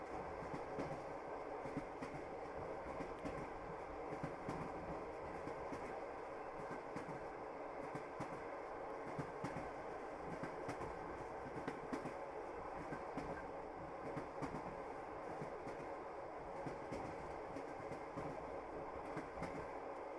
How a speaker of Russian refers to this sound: Сегодня наше путешествие — это поездка в вечернем поезде, в котором мы познакомимся с интересными людьми, будем любоваться сменяющимся пейзажем за окном и, конечно, отдыхать от всех забот.